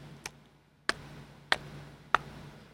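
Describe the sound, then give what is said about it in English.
Four crisp, evenly spaced ticks, about two-thirds of a second apart, made by mouth to imitate the noise made by a blinking LED on an effects pedal, over a faint low hum. “But every single LED in that made a noise.”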